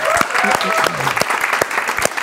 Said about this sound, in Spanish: también tenemos un público. Un, aplauso a ustedes mismos, vamos.